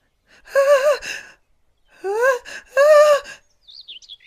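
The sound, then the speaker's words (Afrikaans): A voice acts out the gasping build-up before a sneeze: three drawn-out, rising 'ah… ah…' breaths with pauses between, close and loud, with no sneeze following. “Nee nee nee, … moenie nou nies nie.”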